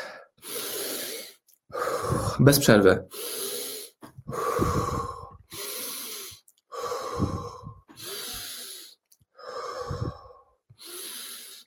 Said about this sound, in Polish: Dobra, lecimy. Wdech, wydech.